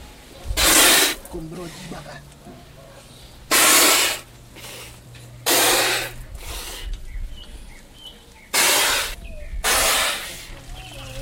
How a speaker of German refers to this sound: Aus ihrem Mund sprüht Wasser. Eine Fontäne.